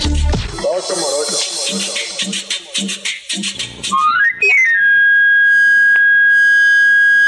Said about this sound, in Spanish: Ese silbido inconfundible es producido por un camarillo, una flauta de madera de origen medieval que basta como anuncio sobre su servicio para afilar cuchillos